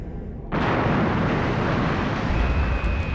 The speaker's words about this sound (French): L'impact fit vibrer toute la coque et le croiseur pirate en perdit son assiette, commençant à se retourner sur lui-même.